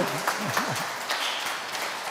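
A crowd applauds with steady, dense clapping for about two seconds, with a few brief voiced cheers rising and falling near the start.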